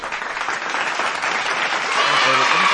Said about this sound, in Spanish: Un aplauso de verdad por ese gran